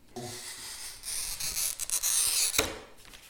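A steady, gritty scratching hiss of a pen-like glazier's glass cutter scoring across a glass sheet, lasting about three seconds with slight surges and a sharp scrape near the end.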